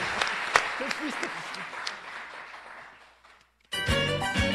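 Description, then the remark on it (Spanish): An audience claps for the Centro Cultural de Tlatelolco, steadily for about three seconds, a dense crackle of many hands at moderate loudness, fading out before a burst of music cuts in. “Un aplauso al Centro Cultural de Tlatelolco”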